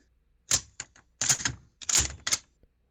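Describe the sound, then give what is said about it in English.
A sharp mechanical click followed by several quick metallic clacks and slides in bursts, fairly loud: the trigger pull and then the bolt being cycled on a Mosin Nagant bolt-action rifle. “I don't know if you're doing it on purpose or not, but it sounds like a bolt action the way you did that. Is it bolt action? Okay. Yeah. It is a bolt action.”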